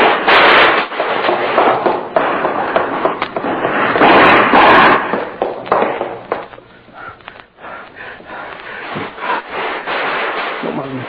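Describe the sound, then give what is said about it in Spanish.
A loud volley of gunshots, with bullets passing over someone's hat: dense, irregular sharp cracks and bangs crowd together for several seconds, then thin out into scattered shots with brief gaps toward the end. “pasaron unas balas por arriba del sombrero.”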